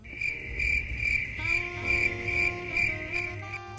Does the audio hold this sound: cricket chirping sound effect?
yes